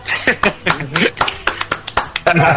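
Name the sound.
clapping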